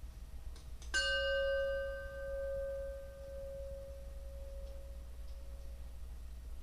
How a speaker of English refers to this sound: As we listen to the chime, let us remember our connection to each other and the world around us.